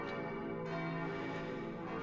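Six church bells, cast between 1704 and 1948, ring together from the neo-Gothic tower of the town parish church in Tölz, completed in 1877. They make a dense, sustained wash of overlapping metallic tones, with no voices.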